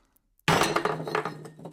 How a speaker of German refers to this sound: Zählt mal genau mit, wie viele Teller und Gläser Gunsbert jetzt zerbricht